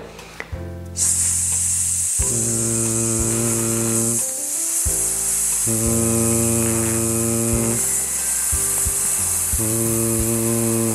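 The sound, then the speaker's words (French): A single voice holds one long, unbroken hissed "s" while repeatedly switching voicing on and off without interrupting the airflow, so the steady hiss alternates with buzzy "z"-like stretches about four times, fairly loud. “Voilà, donc je mets le son, je coupe le son, mais je n'interromps jamais mon flux d'air vous devez toujours conserver ce S.”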